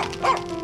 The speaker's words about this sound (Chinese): 没想到轮到卢米看顾柴火时，却不小心睡着了，一直到听到一阵猛烈的狗叫声才醒来。